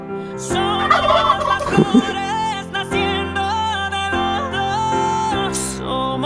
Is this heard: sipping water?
no